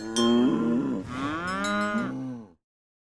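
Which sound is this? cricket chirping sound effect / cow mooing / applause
cow mooing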